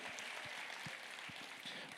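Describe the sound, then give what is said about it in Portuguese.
Sustained applause from an audience giving glory to God, a dense, steady wash of many hands clapping at an even loudness throughout, with occasional louder individual claps standing out. “Deu glória a Deus e um forte aplauso.”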